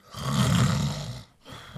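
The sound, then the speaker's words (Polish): A man snores loudly: one long, rumbling, rasping breath, then a brief pause before the next snore begins. “No I żeby nie chrapał.”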